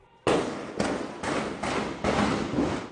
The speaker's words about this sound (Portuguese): A PM foi chamada e houve confronto. Ao mesmo tempo, traficantes trocaram tiros com milicianos do Morro da Chacrinha.